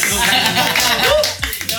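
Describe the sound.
A burst of steady, dense clapping from a small crowd after a speaker introduces himself, loud and continuous for about two seconds, with voices chattering and cheering underneath.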